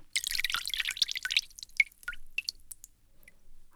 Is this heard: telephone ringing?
no